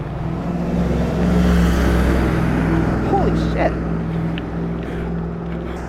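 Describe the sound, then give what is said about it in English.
A school bus roars past a cyclist at close range and really fast in northeast Minneapolis, its heavy engine rumble loud and swelling briefly before easing off, with steady road and wind noise and a startled exclamation from a voice. “Just got passed passed real close by a school bus. Like really fast.”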